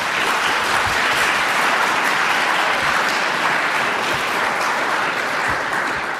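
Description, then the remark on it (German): Sustained audience applause after a reading of a short story from Axel Hacke's book 'Ich habe es euch immer schon gesagt', a dense steady wash of many hands clapping at an even loudness for several seconds, with no voices over it. “Applaus”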